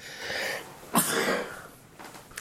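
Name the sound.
sneeze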